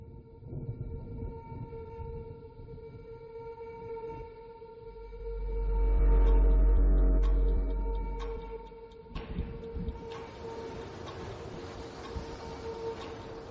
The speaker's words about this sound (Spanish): Em, si quieres, pasamos primero al trailer de la película, después hablamos más sobre la peli. Perfecto, pues le doy al play y escuchamos el tráiler.